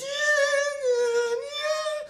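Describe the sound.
A voice imitates eerie violin and trumpet music, holding one loud, wavering high note with a slight downward bend and then a rise, for about two seconds with no words.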